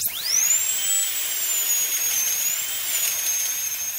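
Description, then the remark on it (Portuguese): A high-pitched dental drill, used to treat a tooth cavity, whines steadily, spinning up at the start and holding a piercing, slightly wavering tone for several seconds, loud with no voices. “Se eu sei que vai ser alguma coisa, por exemplo, ah, tô com uma cárie, vai ter que colocar aquele motorzinho que, é esse, que faz esse barulhinho aqui que você tá ouvindo, ó.”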